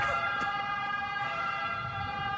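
A loud ambulance siren blares steadily with a bright, piercing electronic wail and a low rumble of traffic beneath it, with no one speaking.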